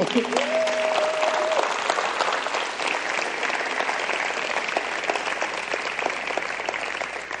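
A crowd applauds steadily for several seconds, dense, loud clapping that holds at an even level throughout, with a brief sustained tone sounding over it at the very start.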